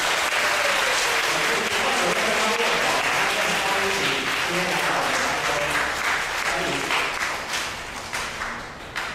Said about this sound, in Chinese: 好，那我们拍手，啊，欢迎这些新朋友。